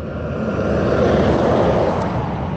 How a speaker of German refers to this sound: Jetzt stehe ich hier an der N1 und es kommen natürlich auch Autos vorbei und ein paar LKWs.